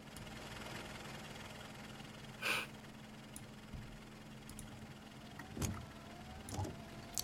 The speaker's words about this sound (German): Es ist ein sehr lautes Auto mit sehr lauten Scheibenwischern. Richtig schlechtes Wetter gerade.